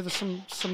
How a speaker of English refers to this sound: Oh, crashing! Oh, that's the dog in his cage.